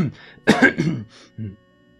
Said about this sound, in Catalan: El desconegut s'escura la gola. Tus dues vegades.